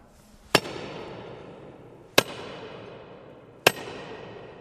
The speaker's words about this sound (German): Jetzt zeige ich, wenn man mit dem Meißel und mit dem Schlägel ein Loch gebohrt hat von Hand. Jetzt soll ich da mal ein bisschen hämmern.